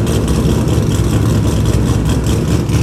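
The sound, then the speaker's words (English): A loud car engine rumbles as a man revs his engine, a deep, throaty idle with a steady revving drone that fills the whole stretch without a break. No one talks. “get interrupted by a fucking car.”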